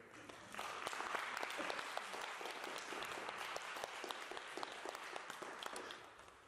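An audience bursts into sustained applause, many hands clapping in a dense, steady wash that swells quickly and carries on evenly for several seconds before tapering slightly.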